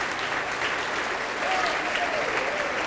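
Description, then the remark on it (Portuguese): A crowd of people applauds steadily and loudly in the name of Jesus, a dense continuous wash of clapping with a few faint voices rising briefly through it. “Tá vindo mais, vamos aplaudir mais.”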